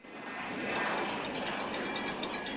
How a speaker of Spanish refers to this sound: Una vez conocidos los datos, encendemos los motores de nuestro avión privado y ponemos rumbo a Río de Janeiro.